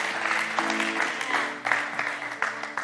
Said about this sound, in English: Some of you have a hard time clapping on that because you're holding on to things to bring forth your identity.